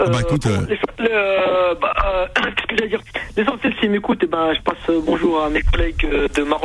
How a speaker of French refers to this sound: ça, grésille.